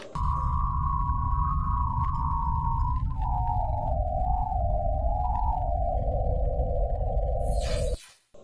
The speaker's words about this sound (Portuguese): E dez meses depois, no comecinho de 2000, na meados de 2021, os cientistas da NASA transformaram essas ondas de rádio em áudio. Escuta só.